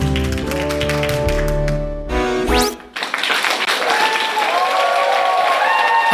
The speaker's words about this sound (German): Klatschen vom Balkon.